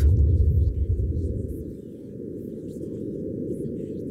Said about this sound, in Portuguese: E temos também o som do próprio vento.